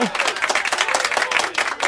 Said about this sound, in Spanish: Aplausos para mí.